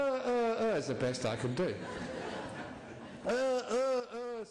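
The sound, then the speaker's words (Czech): A man's voice imitates a donkey's bray, loud, in strained rising-and-falling hee-haw bursts: a long opening cry, a rougher middle stretch, then several quick sharp brays at the end. “Lidé, kteří imitují hlasy zvířat, zřejmě byli v minulých životech zvířetem, ale já oslem nebyl, takže nejlepší, co dokážu, je”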